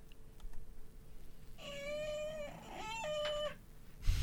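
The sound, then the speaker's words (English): A pet cat named Finnegan meows twice in quick succession, two drawn-out, high-pitched cries, asking for a snack at two thirty in the morning. Faint clicking comes beforehand and a soft thump at the end. “It's uh, it's my cat on your cat's tail.”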